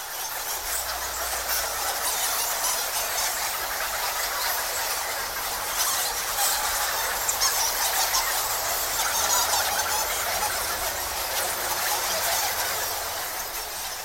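A dense, continuous chatter of high-pitched squeaks and chirps from many bats calling at once, fairly loud and steady throughout, with no voices.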